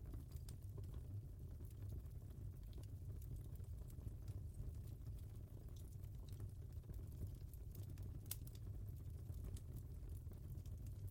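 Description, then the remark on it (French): Wood burning in a fireplace crackles steadily, with irregular small pops and snaps over a low, constant rumble. It's fairly quiet, with no voices. “Vous entendez les crépitements du bois qui se consume.”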